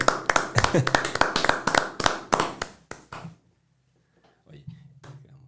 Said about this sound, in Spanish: Vamos, amigos. Y nos vamos aplaudiéndole.